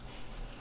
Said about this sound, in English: Sorry about the water noise, guys. I'm in the basement and someone just turned on the water.